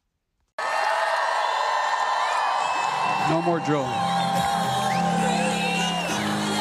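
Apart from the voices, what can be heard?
crowd cheering and whooping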